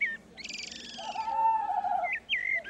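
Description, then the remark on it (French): Several forest birds chirp and whistle at once, a buzzy high trill layered over a longer clear whistle, with short bright tweets breaking in near the end; steady, no voices. “Les corbeaux réunirent tous les oiseaux de la forêt”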